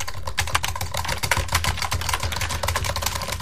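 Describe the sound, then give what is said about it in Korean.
Rapid, dense keystrokes clatter on a computer keyboard in a continuous flurry as a radio DJ hits keys at random for a sound effect, fairly loud, with no voices over it. “키보드 소리군요. 키보드. 오, 엄청 빠르네요.”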